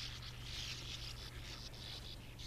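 Sand martins twittering in a dense, continuous raspy chatter with brief breaks, fairly faint and steady throughout, over a low background hum.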